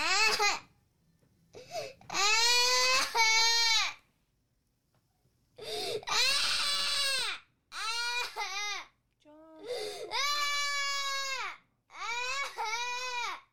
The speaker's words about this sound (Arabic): صراخ البكاء مرة ثانية مثل ما قلنا ما ينفع تهدأ